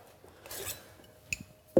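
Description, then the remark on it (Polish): A cocktail shaker cup flips into another: a brief whoosh of motion as the lower cup spins one and a half turns, a bright metallic clink, then a louder, duller metal knock as it drops inside the cup held in the hand. No talking. “No i robimy taki ruch szybciutki, tak żeby ten kubek został Ci w ręku, mhm.”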